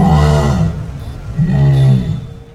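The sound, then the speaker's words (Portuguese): A jaguar roars twice, two deep, drawn-out rumbling bellows with a short pause between them, loud, with no other sounds around them. “Esturra eu te escuto.”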